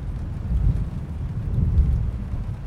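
Deep thunder rumbles steadily through a storm with lightning above a lake in Switzerland, with a low rolling roar swelling and fading over a constant wash of rain, no voices present.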